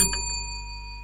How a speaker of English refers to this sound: there's a little bell on the table for people who are listening audio only, and it sounds like this.